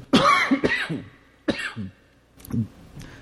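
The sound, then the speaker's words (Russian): A person coughs repeatedly from an allergy that starts in autumn, not from a cold: four or five harsh, irregular bursts over a few seconds, with brief throat-clearing between them and no talking. “Как только начинается осень, у меня начинается какая-то аллергия, которая выглядит в виде вот такого спонтанного кашля.”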